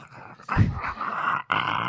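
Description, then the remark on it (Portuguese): A person imitates a female bulldog's growl, a rough, rumbling snarl that starts abruptly and holds for about a second and a half, briefly breaking before rasping on again. “Minha cachorra faz assim, ó.”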